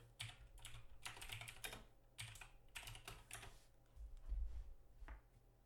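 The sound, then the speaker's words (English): Rapid, clattering keystrokes on a computer keyboard, tapped in uneven bursts with brief pauses, fairly quiet, with no voices. “Excuse my keyboard.”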